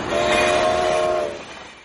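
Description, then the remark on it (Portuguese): A freight train carrying wheat flour sounds a loud, sustained horn for over a second against a broad rumble of rail noise, then the blast cuts off and the rumble fades, as people run toward the train. “Aí você vê a galera já correndo em direção aos trens, eu acho que para sacar o produto, que é a farinha de trigo, né?”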